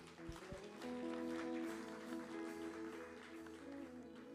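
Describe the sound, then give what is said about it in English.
A crowd claps steadily for several seconds to honor a man, a dense wash of applause with sustained musical tones ringing underneath. “give him a clap”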